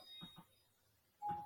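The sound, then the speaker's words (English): The speaker's doorbell suddenly chimes, a single clear electronic tone ringing out loudly after a quiet stretch with a couple of soft, muffled bumps. “So, someone's at my door.”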